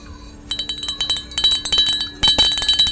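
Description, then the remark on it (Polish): A small bell jingles rapidly and continuously with bright metallic tinkles that grow louder toward the end; no voices. “Tak, jest dzwoneczek.”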